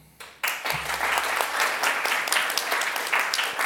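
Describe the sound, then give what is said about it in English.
A crowd bursts into sustained applause welcoming a panel, many hands clapping at once in a dense, steady roar that starts abruptly and stays loud throughout, with no voices standing out. “please join me in welcoming Jess and the panel”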